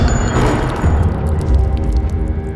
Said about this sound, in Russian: Сказал он, развернулся, схватил пистолет с каталки и выстрелил в Злату.